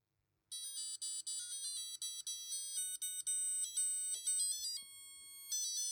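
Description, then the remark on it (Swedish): An Armitron Krono 4 digital wristwatch melody alarm plays a shrill electronic melody of quick, stepping beeped notes with brief gaps, sounding steady for several seconds after a short silence. “Det är tydligen en Melody Alarm Armitron Krono 4 någonting sånt där.”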